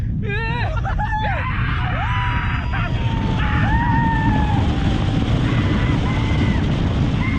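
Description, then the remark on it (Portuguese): Several voices scream and whoop in rising, wavering cries over a loud, constant rushing rumble, like riders shrieking together on a fast-moving roller coaster. “Só que nesta semana, a Associação de Parques Temáticos do Leste e Oeste do Japão cria uma norma proibindo os visitantes de gritar e aplaudir enquanto estiverem no Jetocosta. Jetocosta é montanha russa e os japoneses adoram.”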